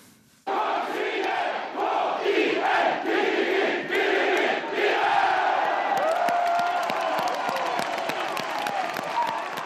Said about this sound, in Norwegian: Det klikka nesten for sindige hedmarkinger da dommeren blåste av kampen på Marienlyst i går kveld. Folk feira som gale en seier som for forfatter, musiker og superkiel-patriot … fortonte seg som nær uvirkelig.